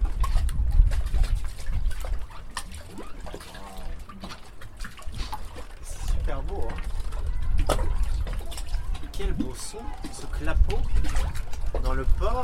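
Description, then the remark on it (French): Water laps and sloshes continuously against the shore at the port of Bonifacio, where boats are moored below cliffs, a steady wash of splashing with low rumble, while faint voices murmur now and then in the background. “Alors maintenant, on vous emmène au bord de l'eau.”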